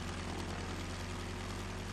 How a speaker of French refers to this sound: vient de s'acheter un petit avion de tourisme et décide d'emmener Betty faire une petite balade dans les airs